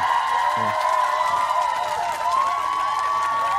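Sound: audience applause and cheering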